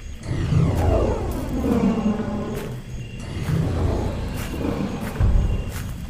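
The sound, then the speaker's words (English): A long, deep growl rumbles low and steady for several seconds, swelling and easing in waves, from an enormous dinosaur more than 12 meters tall behind someone walking through a dark forest. No voices are heard. “When I was about halfway back to the camp, I heard a long, deep growl behind me.”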